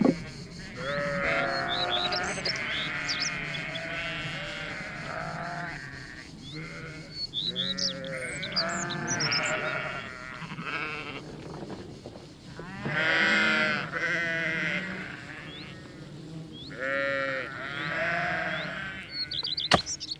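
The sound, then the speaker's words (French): A flock of sheep bleats over and over, several animals calling at once in overlapping, wavering cries, with faint bird chirps above and no one talking. “Le matin, j'allais à l'école et l'après-midi, j'allais faire paître les brebis.”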